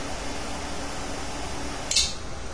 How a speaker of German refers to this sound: mein Feuerzeug für Geräusche? Turbofeuerzeug.